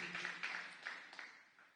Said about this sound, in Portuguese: Se você puder aplaudir ao Senhor, glória a Deus. Aleluia. Amém.